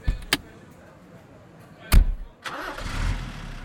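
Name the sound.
truck engine starting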